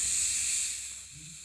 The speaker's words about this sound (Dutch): Wat ik ga met de reet op de, op de microfoon zitten... en ze laat een klein vies scheetje die al een paar dagen dwars zit van de Burger King.